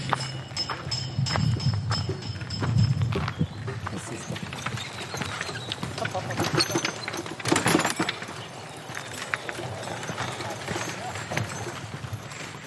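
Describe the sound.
Hooves of a Noriker horse with a carter walking along a steep path up to a residential tower, a steady clip-clop of distinct hoofbeats continuing throughout, with indistinct voices faintly in the background.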